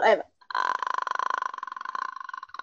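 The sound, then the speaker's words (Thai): A voice imitates the throat croak of the ghost from Ju-On: a brief vocal sound, then a steady, rattling creak of rapid clicking pulses that drags on for about two seconds. “ตั้งแต่อะไรวะไอจูออนอะเราก็เคยแบบพยายามทำเสียงทำเสียงอ๋อเนี่ยนะ”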